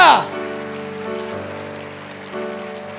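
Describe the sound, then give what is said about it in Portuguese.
An audience applauds Jesus during a sermon in a steady, dense patter of clapping, heard under sustained keyboard chords that hold and shift beneath it, after a brief sliding tone at the start. “Se você crê, dá uma salva de palmas a Jesus, aleluia!”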